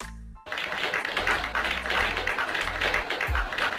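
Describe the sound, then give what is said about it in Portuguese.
A sustained round of applause from a crowd, steady and fairly loud, beginning abruptly after a brief moment and continuing as a dense, crackling wash of clapping until the end. “Eu vou na edição colocarei uma salva de palmas e aí agora a gente vai fechar as cortinas, pois o lindo precisa trabalhar.”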